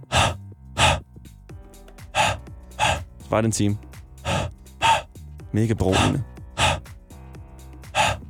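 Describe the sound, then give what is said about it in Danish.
Sharp, breathy huffs repeat in a steady rhythm, about a dozen puffs of breath onto a CD to clean it, with a couple of brief spoken phrases slipped between them. “For eksempel ser jeg allerede nu en efterspørgsel for min en times video, der bare er lyden af det der, når man ånder på en CD for at rense den.”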